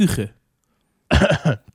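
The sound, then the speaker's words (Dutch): A short, voiced cough, then a pause and a quick run of three rough coughs ending in a faint catch. The coughs are fairly loud, with no talking over them. “Stop met roken, jongen.”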